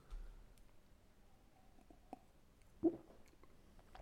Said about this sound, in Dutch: Eh, maar echt eerst een flinke slok water nemen dan, na al die stouts die we gedronken hebben. Dat gaan we even doen.